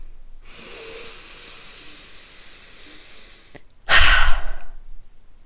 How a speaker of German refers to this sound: Aber ganz, ganz wichtig jetzt an dieser Stelle, stoppen wir jetzt kurz gemeinsam und holen ganz, ganz, ganz tief Luft und atmen kräftig aus.